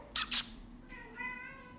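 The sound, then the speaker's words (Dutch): A seven-year-old male cat lets out a single drawn-out meow in the background because it wants attention, quiet, preceded by two short breathy bursts; no one is talking. “jullie horen hem heel erg op de achtergrond nu.”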